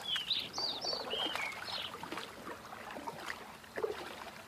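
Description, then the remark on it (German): Several birds sing in the sky above in short, high chirping phrases over a steady background of gentle water sounds, with the calls clustered early and fading into occasional splashes and soft lapping. “Und oben im Himmel kannst du die Vögel singen hören und ihre Lieder wandern in dein Herz mit noch mehr heilender Wärme.”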